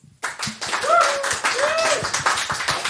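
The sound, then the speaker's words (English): A crowd breaks into loud, dense applause for the guests of the Comedy Arcade comedy show, starting abruptly and keeping going steadily, with a few whoops or whistles rising above the clapping. “So let's have a round of applause for our brilliant guests.”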